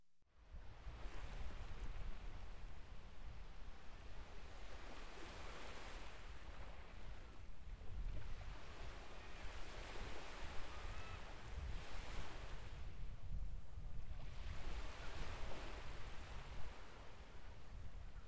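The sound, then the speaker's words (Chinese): Ocean waves wash onto the beach at Yefengzhai in a steady, loud roar, with several broader surges swelling and fading every few seconds. Low wind rumble runs underneath, and no one speaks. “音频：椰风寨的海浪声。”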